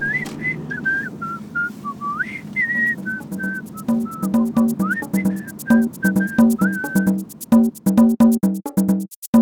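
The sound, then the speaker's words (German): A person whistles a cheerful tune, clear high notes gliding and hopping in a bouncy rhythm, growing quicker and more staccato toward the end over a low steady hum. “Er dachte an Pizza und Bier und nahm das fröhliche Pfeifen wieder auf.”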